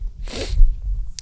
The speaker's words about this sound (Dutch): Ik raak aan de nies. Ehm, en dat ik toch zo oud ben en altijd. Nou ja moet niezen.